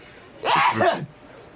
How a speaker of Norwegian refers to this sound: Unnskyld meg? Nøy, nøs du nå? Var det et nys? Det var et nys.